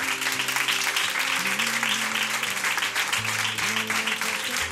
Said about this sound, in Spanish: Un aplauso para nuestros patrocinadores, va.